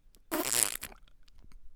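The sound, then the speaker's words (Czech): A single loud, raspy fart sound bursts out for about half a second, sputtering, then fades into quiet background. “Co se stane? Prd.”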